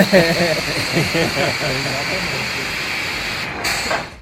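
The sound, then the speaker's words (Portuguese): The Turbo Drop drop tower amusement ride plunges its seats downward with a loud, steady rushing hiss like released air, briefly broken near the end, while excited voices sound at the start. “Se não der trabalho, editor, coloca o somzinho aí do Turbo Drop pra gente ouvir.”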